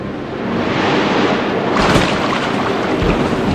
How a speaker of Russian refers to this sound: Они плыли морем, как вдруг налетела жестокая буря и разбила корабль.